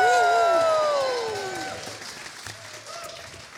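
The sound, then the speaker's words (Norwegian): A live audience of science teachers and science communicators at Ose fjellhotell, at the event Naturfagets helter, claps and cheers, with high whoops and shouts over dense applause that starts loud and gradually fades to scattered clapping. “Og de engasjerte stemmene og hendene du akkurat hørte, tilhører noen av de mest eh, engasjerte naturfagslærerne og formidlerne, naturvitenskapsformidlerne landet har å, by på.”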